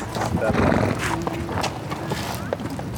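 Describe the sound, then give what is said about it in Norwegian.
Horses and ponies grazing on grass outdoors in the summer sun at Øvre Fossum farm, with a few scattered hoof clops and faint stirring amid steady outdoor ambience; indistinct voices murmur in the background. “Ved Øvre Fossum gård kan folk se hester og ponnier som spiser gress ute i sommersolen.”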